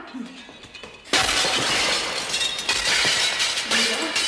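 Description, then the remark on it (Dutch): A panel aboard the ship Flying Dutchman smashes to pieces with a sudden, loud crash about a second in, then several seconds of bright, crackling shattering and clattering fragments that stay loud until the end. “Met dat paneel daar stuk.”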